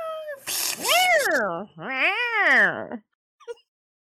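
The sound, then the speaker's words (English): A person imitates cats fighting, letting out two long, rising-and-falling yowling meows back to back, loud, followed by a short faint squeak. “It's about to be a what? Cat fight.”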